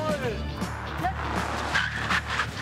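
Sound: car emergency braking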